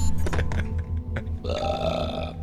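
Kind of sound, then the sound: human body sound, burp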